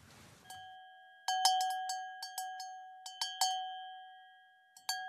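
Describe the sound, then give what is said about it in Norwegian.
Traditional sheep bells, the traditional way of finding sheep, clank in irregular clusters, bright metallic strikes with sustained ringing tones that overlap and decay, after a brief rustle at the start; no one speaks. “Dette er den tradisjonelle måten å finne sauer på.”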